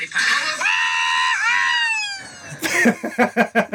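A long, high-pitched joyful scream of victory from a played video of someone celebrating winning a P3 Morgenkopp cup, held for about two seconds, sliding slightly in pitch, then breaking into a burst of rapid, choppy excited yelps.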